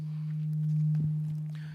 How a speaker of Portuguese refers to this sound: Como é que tá o som? Tá chegando beleza aí? Tá dando alguma microfonia?